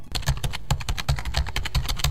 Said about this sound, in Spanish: Puede que las mujeres no seamos tan buenas en una pelea cuerpo a cuerpo pero somos muy buenas tecleando como una ráfaga de metralleta.